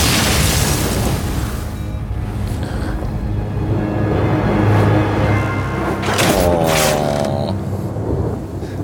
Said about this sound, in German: Das ist das Geräusch, das eine Niederlage in Hearthstone macht.